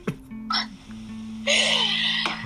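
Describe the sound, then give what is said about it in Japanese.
A second drink container is opened: a couple of small clicks and rustles, then a sudden fizzing hiss of released pressure that lasts about a second before a final click. “だから、もう2本目開けるしかないんですよ、これはもう。”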